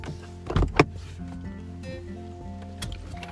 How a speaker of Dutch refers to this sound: Ik wacht gewoon op deze, deze bus die eraan komt.